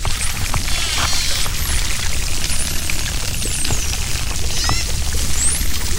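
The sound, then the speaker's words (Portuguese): Bottlenose dolphin calls underwater: several high, sweeping whistles rising and falling over a steady hiss of water noise, with scattered quick clicks throughout. No one speaks. “Eu tô falando do golfinho nariz de garrafa, que tem esse nome por causa do nariz comprido.”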